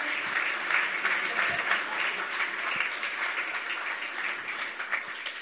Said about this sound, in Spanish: Ah, yo le voy a pedir a, a mi modelo colombiano que tengo esta mañana. ¿Qué a pasar por este lugar? Un aplauso para Mr. Colombia.